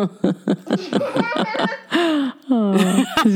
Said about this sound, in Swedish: Jag har fått förstärkt skratt.